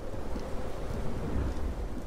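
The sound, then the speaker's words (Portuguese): A thunderstorm: a steady, deep rumble of thunder blended with the constant hiss of rain, holding at an even loudness throughout without any voices. “A próxima tempestade.”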